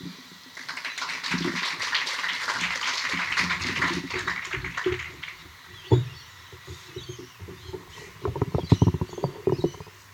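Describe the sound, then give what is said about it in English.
An audience breaks into a burst of applause that swells, holds steady for several seconds, then thins out to a few scattered claps near the end. No one speaks. “Big round of applause”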